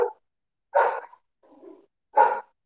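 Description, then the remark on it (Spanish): Dogs fighting outside: a dog barks twice in sharp, separate bursts, with a lower, rougher growling sound in the gap between them; no one speaks. “Pinches perros, güey. Se andan peleando allá afuera, Dios mío, güey.”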